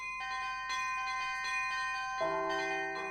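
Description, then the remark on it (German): A cast bell is struck several times in quick succession, each strike ringing on with sustained, overlapping tones; a deeper, fuller bell tone joins partway through, resonating clearly with no voices. “Man schlägt ein komisch aussehendes Teil aus irgendeinem undefinierbaren Material an und es klingt.”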